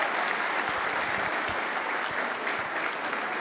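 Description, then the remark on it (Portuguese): An audience applauding steadily for a few seconds, the men applauding the women, dense overlapping claps forming a continuous wash of sound, even in loudness throughout. “Os homens podem aplaudir as mulheres?”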